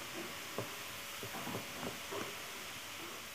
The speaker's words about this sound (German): Es tut mir übrigens leid, dass man im Hintergrund einen Staubsauger hört. Ich kann dafür nichts.